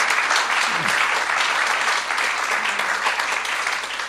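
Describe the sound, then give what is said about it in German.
Steady, dense applause from a crowd, many hands clapping in a continuous loud wash without pauses for the full few seconds, with no one speaking over it. The crowd is applauding three participants to thank them. “Gebt ihnen nochmal einen herzlichen Applaus.”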